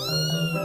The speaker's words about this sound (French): C'était un chat, un petit chat qui aimait les bananes.